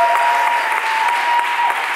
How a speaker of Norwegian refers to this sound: Men applaus til deg som eh, reiste deg der.